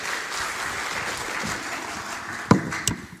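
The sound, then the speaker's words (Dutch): An audience applauds steadily, a dense wash of many hands clapping at an even level, with a couple of sharper individual claps standing out near the end. “Hè, zullen we Tom even een applaus geven?”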